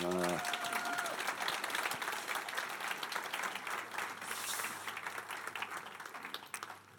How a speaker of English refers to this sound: Um, can we give them a round of applause?